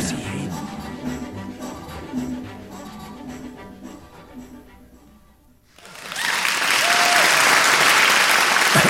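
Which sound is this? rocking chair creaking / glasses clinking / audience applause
audience applause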